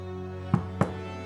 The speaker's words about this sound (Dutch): We kloppen aan.